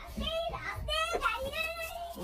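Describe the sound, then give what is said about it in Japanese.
A child, hooked on TikTok and using it nonstop, makes high, voice-like vocalizing in the background, with rising and falling harmonic sweeps. The noise is continuous and moderately loud throughout the short stretch, with no clear words. “うるせえな。すいません。こう子供その1ですね。”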